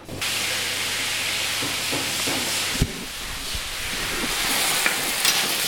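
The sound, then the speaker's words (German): Garlic sizzles steadily as it roasts in hot olive oil in a pan, a dense, continuous crackling hiss, with a soft clunk or two of stirring partway through. No one speaks. “Wir haben jetzt in der Pfanne äh, den angerösteten Knoblauch in Olivenöl”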